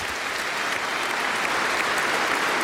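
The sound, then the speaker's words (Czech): Thunderous, sustained applause from 800 standing guests in Vladislav Hall at Prague Castle, applauding the new Czech president Petr Pavel as he takes office; hundreds of hands clapping in a dense, steady roar with no voices rising above it. “Jak sami slyšíte, tento moment provází bouřlivý potlesk 800 hostů ve Vladislavském sále Pražského hradu.”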